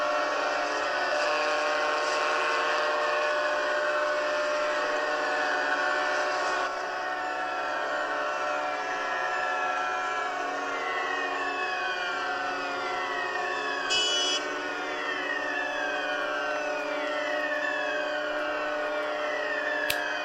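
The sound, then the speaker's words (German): Many sirens across a city wail and sweep up and down at once, layered with sustained honking from car horns all over the city and loud foghorns on the water, forming a loud, dense, continuous wall of sound with no voices. “Sirenen beginnen also überall zu heulen. Scheinbar alle Autohupen der Stadt hupen.”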